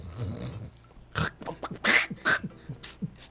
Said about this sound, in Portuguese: tô com uma erva que entrou aqui aterrada Que eu Posso tossir? Não, tenta, tenta limpar, né? Mas fecha o microfone.